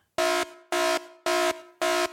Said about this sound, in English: Aha, the dad joke alarm works